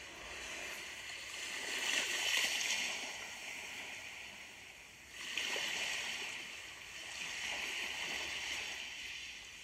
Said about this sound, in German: Unter dem Steg rauscht das Meer. Du kannst das Wasser sehen. Das Wasser bewegt sich ganz sanft und rhythmisch.